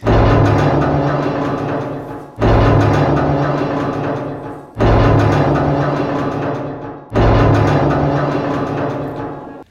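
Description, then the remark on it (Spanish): Four loud, evenly spaced blows of a shoemaker's hammer strike hard rock on the Teresona hill, each ringing out with a long metallic echo that slowly fades before the next hit. No voices. “Con fuerza, Gavino sujeta el martillo de zapatero que siempre carga en su morral y golpea la roca.”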